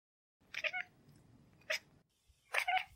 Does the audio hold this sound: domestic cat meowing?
yes